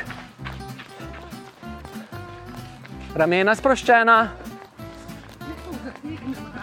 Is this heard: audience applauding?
no